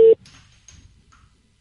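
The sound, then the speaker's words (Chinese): A single loud, steady mid-pitched telephone busy-signal beep cuts off abruptly, followed by faint background murmur and low rumble. “您拨打的电话正在通话中，请稍后再拨。”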